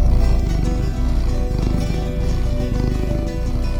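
A cat purrs steadily while held in someone's arms, a continuous low rumbling vibration with a fast pulsing texture that holds at an even loudness throughout, with no talking.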